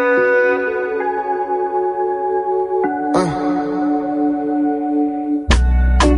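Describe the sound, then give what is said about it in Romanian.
A new pop song plays loudly, starting with sustained, layered synth chords that shift partway through, then a burst of fuller instrumentation near the end; no singing yet. “Bă, hai să ascultăm piesa și să vedeți.”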